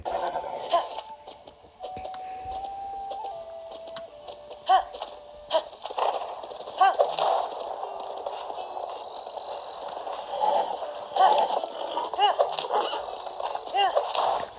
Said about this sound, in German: Aber zuerst steigen wir noch einmal auf unser Pferd